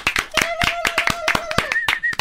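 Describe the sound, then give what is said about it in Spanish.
Steady, rapid hand clapping from a small group, sharp repeated claps in a quick rhythm, with a thin whistle-like tone and faint voices weaving underneath. “Ya, bro, ¿van a hacer un minuto de, aplausos o qué?”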